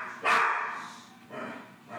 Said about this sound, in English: Ignore the dog. Please ignore the dog.